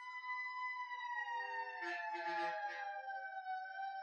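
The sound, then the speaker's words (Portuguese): An emergency vehicle siren wails steadily in the street, loud and continuous, its pitch sliding gradually downward as it passes by, with faint traffic noise beneath. “além do barulho da sirene, que já é muito alto aqui”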